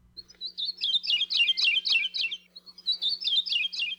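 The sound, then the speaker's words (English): A Maui parrotbill (kiwikiu), one of the rarest, most endangered birds in the world, found only in the highest-elevation forests on Maui, sings a lively series of sweet, rapid chirping phrases, repeated in two bursts with a short pause between, clear with no talking. “And for this week's Manu Minute, we hear the song of one of the rarest birds in the world, the kiwikiu or Maui Parrotbill.”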